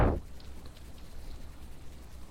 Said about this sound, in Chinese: 可是我却听到了厅外正在下雨的声音